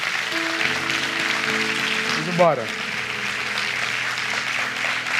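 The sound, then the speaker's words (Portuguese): An audience applauds in a steady, sustained wash of clapping for several seconds, with held keyboard chords underneath and a brief spoken exclamation midway. “Aplauda ele.”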